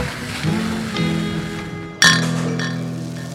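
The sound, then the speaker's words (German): Beer glasses clink together in a toast in a small beer cellar: a couple of lighter taps, then one sharp, bright clink that rings on with a sustained glassy tone. “Hey, moin moin und Prost aus unserem kleinen Bierkeller.”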